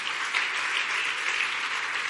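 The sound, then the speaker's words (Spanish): A crowd of many people applauds steadily in praise of Jesus, a dense, continuous wash of clapping that stays at an even, fairly loud level throughout with no voices standing out. “Dale un buen aplauso de alabanza a Jesús.”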